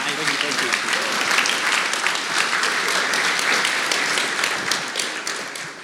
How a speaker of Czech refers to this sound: zatleskejte